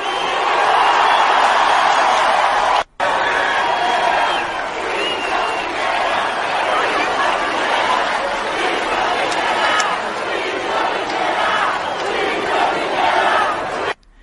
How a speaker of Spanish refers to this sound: Aparte de la cita, eh, hay otra cosa que la gente cuando se va grita juicio a Piñera, juicio a Piñera, porque si hay algo que ha pasado en Chile es el descontento con Piñera